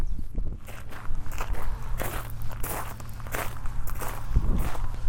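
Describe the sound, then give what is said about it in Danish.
Steady footsteps crunch along an outdoor path at a relaxed walking pace as people walk down to visit a stone, each step a crisp scuffing crackle over a low rumbling background. “Men der er en sten mere, vi lige er nødt til at gå ned og besøge.”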